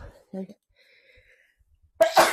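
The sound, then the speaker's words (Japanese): A single loud sneeze bursts out near the end, preceded by a short sharp inhale; before it there is only a quiet pause with faint breathy sounds. “ごめんなさい。くしゃみが出てしまいました。”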